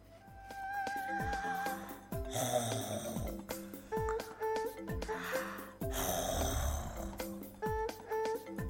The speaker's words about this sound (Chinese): 他听到了打鼾的声音。嘿，气死我了！你怎么还在睡呀？妈妈瞪圆了眼睛。是哥哥，哥哥还在睡呢，哥哥在睡懒觉。